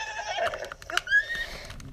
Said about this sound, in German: So, ein Pferd. Wir sind jetzt auf einem schwarzen.